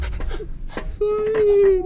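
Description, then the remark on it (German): A dog pants in quick, breathy bursts while jumping up at a transit inspector to sniff, then lets out a long, steady whine that holds for almost a second. “spring nochmal am Transitkontrolleur hoch, damit er nochmal das Peptid zu schnuppern bekommt.”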